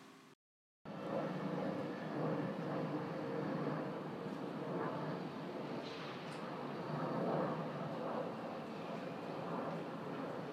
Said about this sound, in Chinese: 音频五：飞机划过天空。